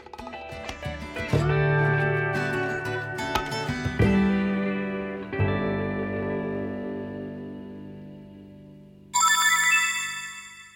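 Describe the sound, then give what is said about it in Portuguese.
An electronic shop door chime at a shop with an all-glass front, set off when the door opens as someone passes through, plays a short melody of several ringing notes, each decaying slowly, followed near the end by a brighter, higher chime burst; no one speaks. “Esse barulhinho que faz no começo é porque essas lojas elas têm poucos atendentes. Então, quando a gente passa pela porta, quando a porta abre, a gente passa pela porta, ele faz um sinal”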